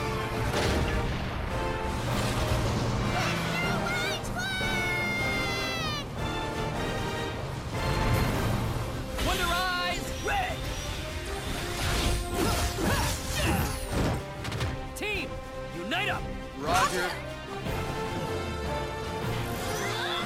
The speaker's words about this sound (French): s'agissait donc du trailer de The Wonderful 101, le jeu Platinum Games exclu sur euh, Wii U.